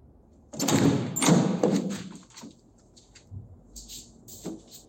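A door is opened: a clunk of the latch, then a sustained scraping, rattling movement lasting a couple of seconds, followed by a few quieter knocks and shuffles.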